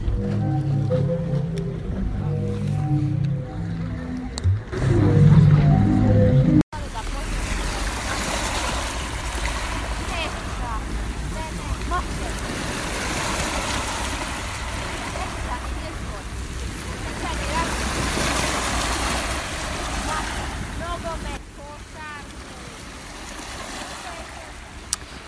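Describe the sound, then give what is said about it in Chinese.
Sea water laps and sloshes steadily in a continuous wash of splashing, preceded by a few seconds of low, droning tones from a sea organ; faint voices of people talking normally sit underneath. “还有海水的声音，可以闻到鱼的味道。”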